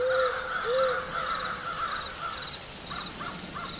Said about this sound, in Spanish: Casi al instante, de una bandada de pájaros negros que empiezan a merodear el lugar como si presintieran o presagieran algo más.